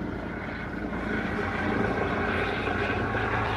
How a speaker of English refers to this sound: And here, we'll just let this helicopter land for a second.